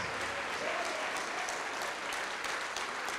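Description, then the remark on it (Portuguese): A church audience claps continuously as people come forward to the front, a dense, steady patter of many hands with scattered sharper claps. It holds at an even level throughout with no clear break. “Tá chegando mais, vamos aplaudir mais.”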